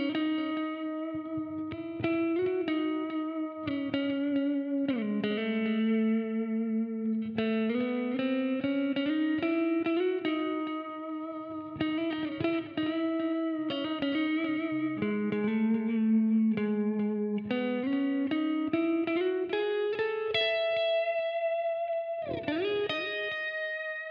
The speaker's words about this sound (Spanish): es una herramienta de guitarra y producción súper cabrona. No es nada más el modelador que suena chingón, el JCM800. O sea, va mucho más allá.